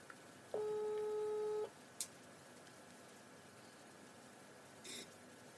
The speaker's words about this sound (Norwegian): Ja. Det ringer, ja.